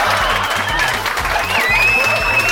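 A standing ovation: a crowd applauding steadily throughout, a dense wash of clapping with a few high whistles rising above it, loud and sustained as if from a large enthusiastic audience.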